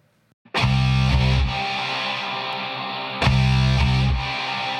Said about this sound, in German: was ihr hier hört, sind die nagelneuen Tracks von der …